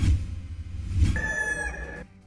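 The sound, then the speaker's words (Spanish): A single rooster crows once, a drawn-out, fairly loud call lasting about a second over a steady low rumble, then stops abruptly. “Un hombre decide no viajar a Estados Unidos porque no le permitieron llevar su gallo de pelea.”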